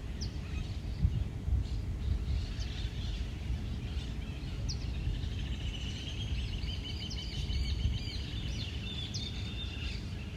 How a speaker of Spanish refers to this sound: Siento el sonido de los pájaros que me acompañan a conectar con esa naturaleza pura que va recorriendo mi cuerpo.